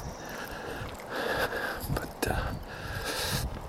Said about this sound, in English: anyway, so I apologize for the wind. I'll do the best I can with it in post production minimize the effect. It's usually not as bad once we get up here by the meditation house and stuff.